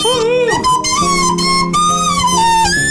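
A flute plays a song melody for a song-guessing quiz: a sustained, wavering melody with bright harmonic overtones, the pitch bending and sliding noticeably off-key, held notes stretching over a steady, fairly loud tone with no voices.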